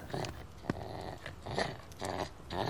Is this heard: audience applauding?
no